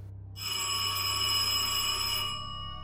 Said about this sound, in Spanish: Eran las 3 y 10 de la tarde cuando la campana de la puerta de la mansión Dobson resonó con fuerza.